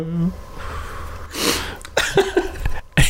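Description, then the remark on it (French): Someone vocally mimics a cartoon fall, like Coyote falling in the Road Runner cartoons: a brief sliding tone, a breathy whoosh, then a few sharp mouth-made bursts like a comic crash. “quand il tombe, ça fait.”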